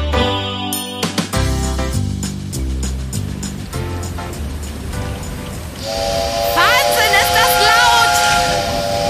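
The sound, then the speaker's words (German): A locomotive signal horn blows one long, loud, sustained blast with a hissing edge, coming in near the end after a stretch of rhythmic music. “Signalhorn der Lokomotive war so laut.”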